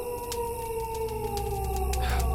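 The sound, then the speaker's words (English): Coyotes howl in long, drawn-out howls that glide slowly downward in pitch and hold steady through the whole moment, fairly loud against a low rumbling background, with a few faint clicks scattered throughout. “Coyotes?”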